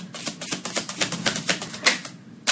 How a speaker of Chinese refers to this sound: 哇，你洗牌好厉害啊！ 确实。 就是因为因为现在是播客嘛，然后听众肯定看不到他是怎么洗牌的。 可以听到 shuffle 的声 对 音。 对，就是我感觉你是在淘金，淘着淘着出来一颗。